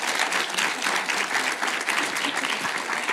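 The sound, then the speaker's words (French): Sustained audience applause fills the whole stretch, a dense, steady patter of many hands clapping at once, fairly loud, with no clear voices rising above it. “vous pouvez applaudir.”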